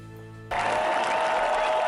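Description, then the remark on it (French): A short steady tone gives way abruptly to a loud, dense roar of a stadium crowd cheering and applauding in celebration of a title win, continuing unbroken to the end. “La foule est en liesse, the fool is in euh, Lias, je peux vous le dire.”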